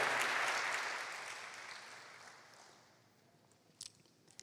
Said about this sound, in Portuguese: E se você pode, meu amado, dê um aplauso ao Senhor mais uma vez.